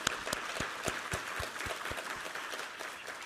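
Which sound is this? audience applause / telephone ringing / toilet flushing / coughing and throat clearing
audience applause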